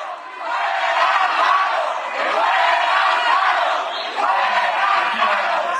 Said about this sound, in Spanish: dijo que estos abucheos que ya escuchamos fueron orquestados por grupos de Morena